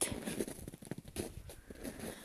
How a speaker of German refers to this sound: was ihr im Hintergrund hört, sind meine Schritte im Schnee meine Schritte im Wald.